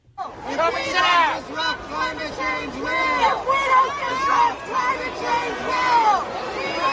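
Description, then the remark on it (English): A large tennis stadium crowd boos and jeers at climate protesters who interrupted the match, many voices overlapping in sustained, wavering calls that swell and dip continuously for several seconds, loud. “So you can hear all of a sudden people start to boo.”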